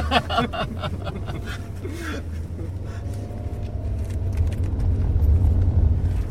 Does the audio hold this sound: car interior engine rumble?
yes